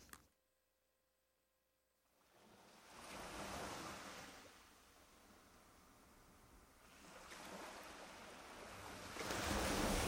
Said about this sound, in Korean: 파도 소리 마지막에 촥 들려드리면서 마무리하는 거 너무 좋지 않습니까?